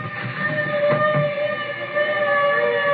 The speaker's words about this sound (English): Listen. A fire engine. Hey, I gotta see it.